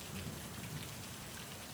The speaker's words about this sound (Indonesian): Lalu tiba-tiba hujan juga jatuh tepat di tempat aku berdiri.